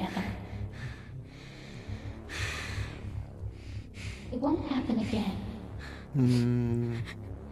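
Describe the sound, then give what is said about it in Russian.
Heavy, rasping breaths repeat close to the ear in slow, noisy bursts, joined near the end by a louder voiced groan or murmur that makes them feel eerie and intimate. “А то мне странно, сейчас просто в наушниках сижу и кто-то дышит на ухо.”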